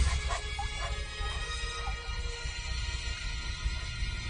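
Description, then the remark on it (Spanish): A small puppy lets out a few soft yips and high whimpers, mostly early on, over a steady low background rumble. The sounds are fairly quiet and short, with no talking. “por lo cual sus padres decidieron comprarle un perrito para que le hiciera compañía.”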